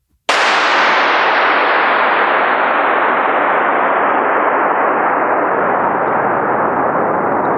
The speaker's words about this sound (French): C'est-à-dire à partir du moment à partir du moment où il a tiré son coup de feu, le son, il a résonné pendant une minute et 12 secondes.